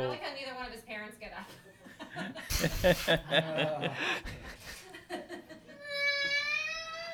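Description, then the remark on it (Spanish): A young child who has hurt a toe cries in high, wavering wails, breaking off and then rising again into a sustained cry at the end, with adults talking over and around it. “hay uno llorando, uno lesionado.”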